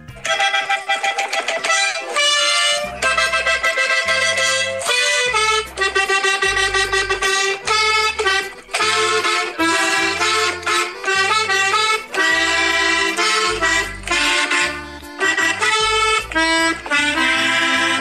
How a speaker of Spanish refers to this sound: quiero presumir mi nueva pasión con mi mini acordeón. Ahí te va, ¿eh? A ver qué te parece.